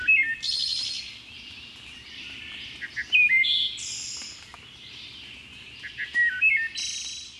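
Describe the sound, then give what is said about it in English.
A wood thrush sings three separate flute-like phrases about three seconds apart, each ending in a higher, shimmering trill, with a faint low rumble in the background. “Some believe the song of the wood thrush to be the most beautiful bird song in North America.”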